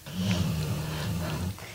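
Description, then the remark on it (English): A dog named Boris snoring: one long, low, rasping rumble that holds steady for over a second before trailing off, with no voices. “If anyone can hear a strange noise in the background, that's Boris snoring.”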